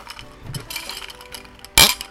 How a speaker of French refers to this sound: Le, bruit des glaçons, ça va rafraîchir un peu tout le monde.